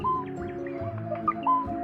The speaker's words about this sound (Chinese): 听呀，还有可爱的小鸟在唱歌呢。